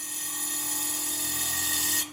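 A steady, high-pitched whine of a spinning engraving wheel grinding a twisting dragon into the thin coloured glass layer of a light-violet juice jug, turned by hand against the wheel, holding an even tone for about two seconds before cutting off abruptly, with no voices.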